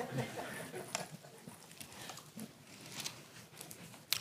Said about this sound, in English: Listen to all those wonderful paper Bibles. I love it.